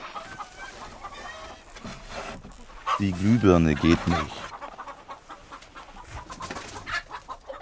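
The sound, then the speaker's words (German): A flock of about 50 hens in a henhouse clucks and squawks in a busy, overlapping chorus, with a loud burst in the middle, while a person speaks over the noise. “so an die 50 Hühner.”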